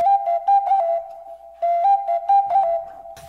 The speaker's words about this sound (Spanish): ponme un ruido de flauta prehispánica.